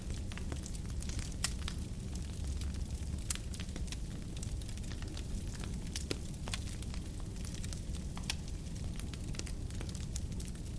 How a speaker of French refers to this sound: Le feu est grand et large. Vous voyez les flammes tourbillonner et les lourdes bûches qui alimentent les flammes crépitées.